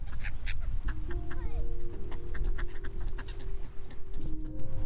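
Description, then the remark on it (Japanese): A busy flock of waterbirds, ducks and black-headed gulls, calls repeatedly in overlapping bursts, with short sharp cries and a few drawn-out tones over steady outdoor background noise, at a lakeside observation spot near Moriyama with Mount Hiei across the lake, on a fine day, as people feed them. “どうですかいっぱい餌をあげられましたかうんいっぱいあげられこのこの水鳥さんたちは何という水鳥ですかカモとなんだっけなカモと何ゆりかもめ”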